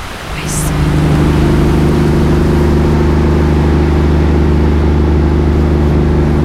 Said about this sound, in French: on est sur euh, un bateau qui va de Brest à Ouessant. Il est 8h30 euh, du matin, le soleil est en train de se lever, la mer est plutôt calme. Il y a des mouettes qui euh, s'excitent, qui commencent à s'exciter un petit peu.